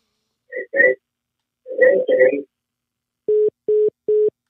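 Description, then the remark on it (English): Brief muffled talk, then a telephone line tone after a caller hangs up his phone: three identical steady beeps, evenly spaced with short gaps, loud and clear after the voices stop. “Guess he hung up his phone.”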